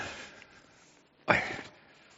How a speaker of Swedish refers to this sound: Vi kan bläddra lite tillbaka här i den här boken.